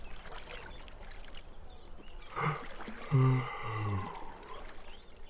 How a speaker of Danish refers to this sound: De går op på broen og kigger ned i det rolige vand. Nede i vandet svømmer to små fisk og slapper af. Lyden af det rolige vand og fuglene, der synger i træerne, gør Give helt træt.